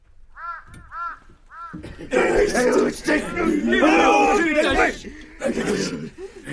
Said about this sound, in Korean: 그런데 드디어 윤원형이 조정에서 쫓겨나자 땅을 빼앗긴 백성들이 분을 참지 못하고 관가에 몰려들었다.